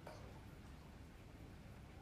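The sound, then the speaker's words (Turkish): Steady rain falls in a continuous, even hiss with a low rumbling wash underneath, heard from a balcony in slightly cold weather, with no voices present. “Öncelikle şu an balkonda oturuyorum. Güzel bir yağmur yağıyor.”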